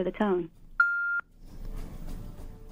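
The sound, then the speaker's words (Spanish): A voice speaks briefly, then a single steady electronic phone tone beeps for under half a second before cutting off as a phone call fails to connect, followed by muffled background talk and line noise. “Ok, no, no enlaza.”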